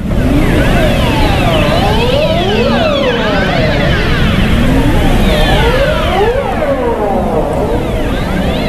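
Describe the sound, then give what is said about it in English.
Ross seal vocalisation: dense, overlapping siren-like calls that glide up and down in pitch, sweeping continuously and loudly throughout with no pauses and no voices. “Here's one of the sounds made by Ross Seals.”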